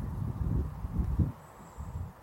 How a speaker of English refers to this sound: And here I sit in the sunshine, feeling the vitamin D absorbing into this beautiful body, listening to the birds, enjoying the wind out here in Washington State.